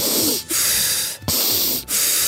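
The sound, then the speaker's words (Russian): A person pants in quick, forceful breaths like a dog, a practice called dog breathing, with about four loud, airy breaths in close succession and no talking. “Вот когда вы вот так начинаете дышать, это называется ну, я его называю как собачьим дыханием, то, когда да.”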